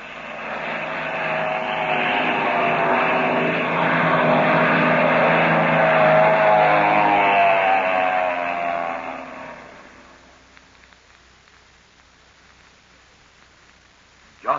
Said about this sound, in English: Just at the moment when things began to look brighter for Captain Midnight and his friends, a black plane dives out of the crimson sky.